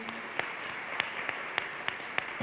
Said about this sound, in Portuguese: Com muito prazer. Mulheres, vamos aplaudir esses homens.